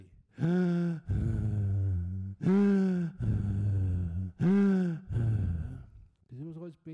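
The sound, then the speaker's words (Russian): A voice imitates a man of about 40 with sinus cancer meditating at a retreat, breathing loudly through the mouth: three slow, rasping in-and-out cycles, each a strained inhale followed by a noisy exhale, prominent with no words. “Потому что ему приходилось дышать через рот, по-другому он не мог.”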